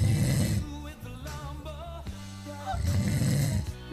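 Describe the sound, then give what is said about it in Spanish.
A person imitates snoring with their mouth closed, producing a buzzy, nasal rumble in a few rhythmic pulses, fairly loud, with no words spoken. “es de las personas que roncan con la boca cerrada, ubicás.”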